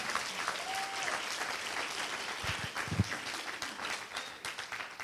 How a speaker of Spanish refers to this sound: Si usted lo cree, denle un aplauso fuerte al Señor Jesús. Vamos.